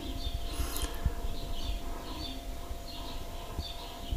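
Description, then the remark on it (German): Faint birdsong from outside a window, recorded with the device held toward the window: repeated high chirps and short trills over a steady low background hum, with no one speaking. “Genau, und jetzt könnt ihr die Vögel hören. Ich halte jetzt mal direkt aufs Fenster.”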